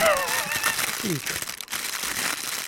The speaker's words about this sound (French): Je croyais que c'était un feu de camp, Ouais, c'est plus un feu de camp, c'est vrai. Ah non, mais c'est des vagues de feu. Un foyer. Ah, c'est des vagues de feu.